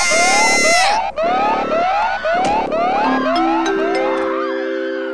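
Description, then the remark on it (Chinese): A fire alarm blares in loud, repeating one-second bursts of a steady, buzzing mid-pitched tone during a fire, with excited voices shouting over it urging everyone to evacuate. “这是火灾警报，有火灾，火灾！”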